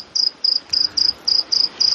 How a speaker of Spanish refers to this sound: no soy yo el que estoy haciendo el grillo, es un grillo que hay